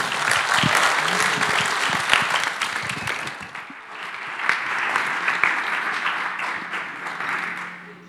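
Sustained applause from a sizeable audience, a dense wash of many hands clapping that stays loud throughout, dipping briefly near the middle before swelling again.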